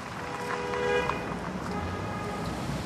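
Steady street traffic rumbles throughout on a street by a quayside, and a car horn gives one sustained, fairly loud honk lasting about a second near the start before the traffic noise carries on alone.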